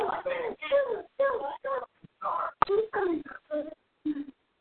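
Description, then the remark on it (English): A young child in the background of a phone call whimpers and fusses in a run of short, whiny voiced bursts with brief pauses between them, moderately loud. “Somebody's got kids making noise in the background.”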